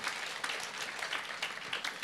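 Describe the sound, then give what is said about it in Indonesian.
A crowd claps steadily in praise of Jesus as the King of Peace, a dense patter of many hands that stays fairly even in loudness for a couple of seconds, with no voices over it. “Boleh tepuk tangan buat Raja Damai.”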